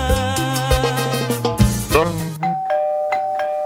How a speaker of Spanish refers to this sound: Tocan el timbre, Alberto.